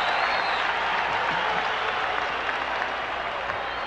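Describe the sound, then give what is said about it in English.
A stadium crowd cheers and applauds as the instant replay of Bo running up the wall is shown on the big screen, a dense, unbroken wash of clapping and roaring that holds steady and loud for the full few seconds, with no one speaking over it. “They show it on the big screen. Listen to the crowd.”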